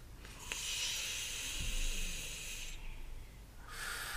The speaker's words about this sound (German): Indem man ganz tief ein- und ausatmet. Genau. Und jetzt atmen wir ganz tief ein und wieder aus. Und wieder ein.